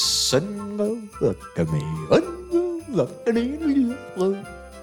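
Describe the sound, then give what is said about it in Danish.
A mobile phone ringtone plays a bright, melodic tune of several sustained notes rising and falling, after a brief hiss at the start. It is fairly loud, with no talking over it. “Min telefon ringer med lyden.”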